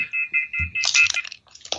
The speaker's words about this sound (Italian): No, era, era il telefono.